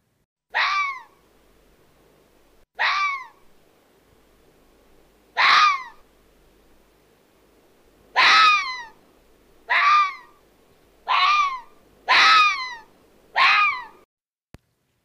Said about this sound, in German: Und zwar das Bellen des Fuchses. Ganz sicher hast du das bereits gehört und erkennst es wieder. Es ist immer wieder beeindruckend, und ja, hör dir es einfach an und hab Freude.